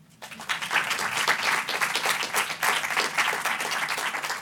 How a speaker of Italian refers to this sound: Applauso.